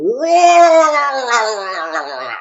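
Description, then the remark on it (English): A voice imitates the attack cry of a Murloc, a fishman creature from World of Warcraft: one loud, wavering gurgling yell that rises sharply, then holds and warbles for about two seconds before trailing off. “But Murlocs are these sort of fishmen that make a very distinctive noise when they attack you.”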